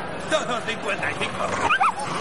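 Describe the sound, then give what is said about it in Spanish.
A dog lets out a few sharp, high yips and short barks as it is released at rats, amid a noisy, bustling crowd, with voices murmuring throughout. “Lanzan al perro que va por las ratas.”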